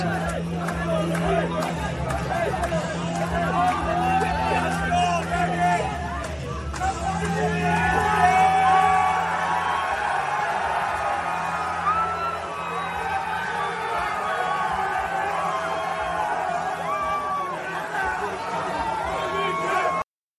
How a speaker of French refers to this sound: puis après ça, le negage est arrivé, je vais vous montrer ça vite fait, mais une foule assez intense.